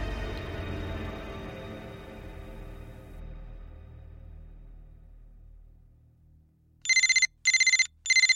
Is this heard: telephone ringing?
yes